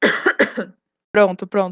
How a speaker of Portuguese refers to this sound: Peraí, vou tossir rapidinho.